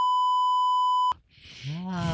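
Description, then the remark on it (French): A loud, steady censorship bleep holds a single pure tone for about a second, then cuts off abruptly as a voice resumes talking. “Donc, je, sais pas, je, vois peux le bipper, moi.”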